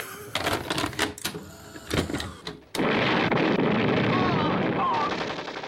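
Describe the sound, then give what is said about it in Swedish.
A VHS tape is pushed into a new video player: a burst of sharp mechanical clicks and clunks, then a loud, steady wash of noise as playback kicks in. “Och så trycker vi in Tornado. Den får storma in i VHSen bara.”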